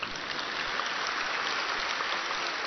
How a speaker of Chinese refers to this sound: 我们墨尔本的听众佛友非常有修养，你看坐在下面安静的不得了，就是鼓掌也是这么的轻啊！